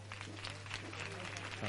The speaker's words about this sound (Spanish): el aplauso, la ovación contenida, muchas horas esperando aquí está Virgen de las Angustias, consuelo de los afligidos